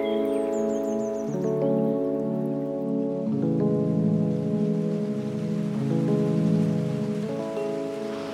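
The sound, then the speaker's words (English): Steady rain hisses throughout at a constant level, blended with sustained, slowly shifting musical chords that change every couple of seconds; no voices are heard. “something about just enjoying just the sound of the rain, the smell of the rain, the distant trees, the color of fall in the country.”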